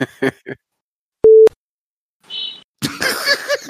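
A single short, loud horn honk with a steady mid-pitched tone, lasting about a quarter second, set among scattered softer noises and followed by a burst of busy, noisy sound.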